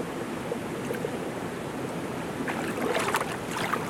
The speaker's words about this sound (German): Ich sitze in einer der warmen Quellen von Gambiola, unten an Saint-Martin. Im Hintergrund hört man den Fluss rauschen und an diesem Fluss entlang entspringen verschiedene warme Quellen.